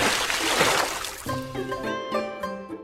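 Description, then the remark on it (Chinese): A loud, rushing splash of water as Xu Chu is thrown into a river by an elephant's trunk, washing out over about a second, followed by several steady, ringing musical tones. “大象似乎明白了许褚的意思，用鼻子卷起许褚，将他扔进了河水里。”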